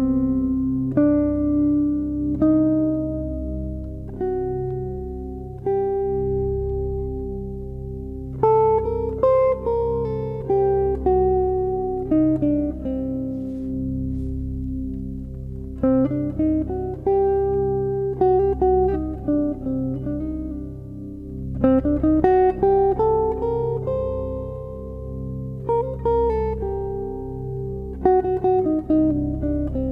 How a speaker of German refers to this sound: eigentlich eine Moll-Dorische Skala, aber mit einer erhöhten 4. Diese Skala spielt in Indien eine große Rolle, in Südindien, aber auch in jüdischer Musik gibt es einen Namen dafür.